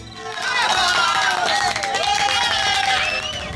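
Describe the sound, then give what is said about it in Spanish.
A crowd applauds steadily for a few seconds to welcome a guest psychologist, dense clapping mixed with cheers and whoops, loud from start to finish. “Démosle un aplauso, por favor.”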